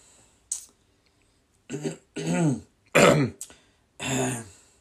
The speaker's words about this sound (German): Jetzt habe ich aber Husten.